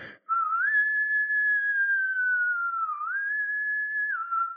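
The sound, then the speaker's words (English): A Navy boatswain's pipe call, first calling attention and then piping colors: one long, steady, high whistled tone held for about four seconds, dipping briefly in pitch twice before rising back. It's clear and fairly loud, with no talking. “He's first calling attention and then he's piping colors.”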